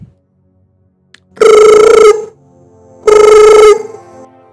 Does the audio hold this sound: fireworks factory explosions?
no